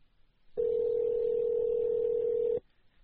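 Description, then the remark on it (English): A single steady ringback tone of an outgoing call from Poker Fraud Alert Radio that goes unanswered, a loud, even electronic purr lasting about two seconds before cutting off, with faint line noise around it and no voices. “Nobody calls in. The two calls out don't reach anybody.”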